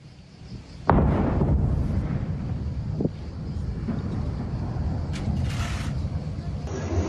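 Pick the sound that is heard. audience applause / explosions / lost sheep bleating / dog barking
explosions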